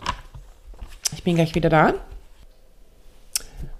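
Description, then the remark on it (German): A few brief, crisp papery flicks and rustles as someone leafs through pages of notes, scattered across a quiet stretch, with a short spoken phrase in between. “So, jetzt muss ich kurz in meine Notizen blättern.”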